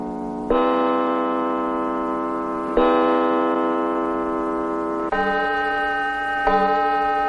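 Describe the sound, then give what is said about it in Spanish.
House clocks strike ten o'clock: a clock chimes in slow, resonant strikes, four rich ringing tones in the window, each sustained and overlapping the next, with no voices present. “Los relojes de la casa marcan las 10 en punto.”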